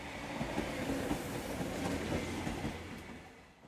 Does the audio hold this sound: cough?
no